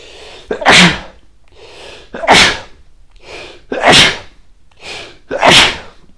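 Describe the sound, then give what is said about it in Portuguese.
Four loud sneezes in a row, evenly spaced about a second and a half apart, each explosive burst preceded by a short, sharp intake of breath, with no talking. “Quatro espirros?”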